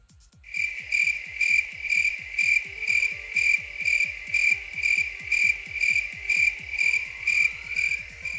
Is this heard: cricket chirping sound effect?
yes